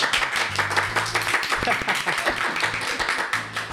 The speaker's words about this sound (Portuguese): Peraí, vou aproveitar que temos algumas plateias e vamos dar salva de palmas